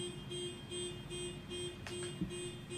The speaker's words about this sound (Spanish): Che, hay una alarma, loco.